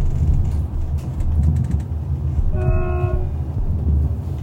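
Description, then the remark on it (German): A steady rumble of a train from Kyiv rolling along the tracks, with a brief high tonal whine or horn-like squeal rising over the clatter partway through. No voices. “Diese Rückfahrt erfolgte natürlich wieder mit der Bahn von Kiew aus.”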